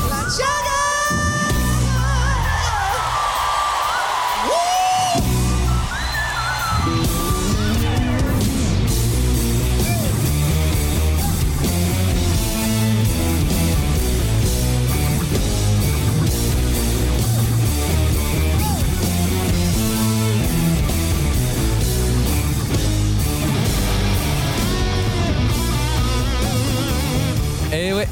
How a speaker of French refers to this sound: Batterie, clavier, basse, guitare, chant, lumière, puissance, tout le monde chante et danse. C'est du grand show comme à Manchester par exemple.